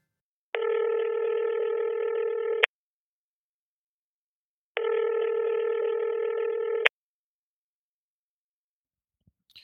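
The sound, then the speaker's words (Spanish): A telephone ringing tone heard down the line as a caller phones a doctor: two long, steady electronic rings separated by a couple of seconds of silence, clear and moderately loud, followed by a faint click. “Pasan algunas semanas y el último día de agosto decido por fin tomar el teléfono y llamar al doctor.”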